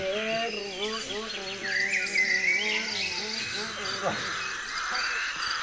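Birds chirp and twitter in a dense forest in northern Europe, with a brighter burst of high calls midway, plus croaking frog-like sounds and insect buzz filling the background.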